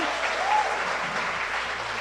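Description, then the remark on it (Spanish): Steady, dense audience applause for a work team called the Dream Team fills the whole two seconds at an even loudness, with a brief rising whistle cutting through early on and no voices on top. “Démosle un aplauso a ese equipo de trabajo, el Dream Team.”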